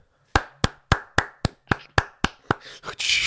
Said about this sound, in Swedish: Så uh, props till Fortnite, applåder!